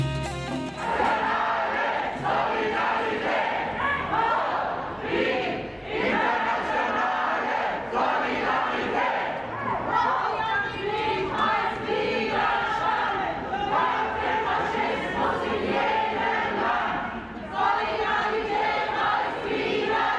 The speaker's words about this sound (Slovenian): Ravnokar ste slišali skandiranje delegatov, ki jim je bil zavrnjen vstop v državo in so se danes iz Erbila vrnili v Frankfurt.